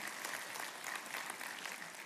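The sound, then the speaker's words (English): A crowd at the Fellowship Fayetteville campus applauds steadily to celebrate four years of Celebrate Recovery there, a dense wash of many hands clapping at once, sustained and fairly loud throughout with no voices standing out. “Yeah, yeah, we can clap for that.”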